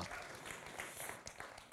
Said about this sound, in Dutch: Applaus voor alle mannen. Ja.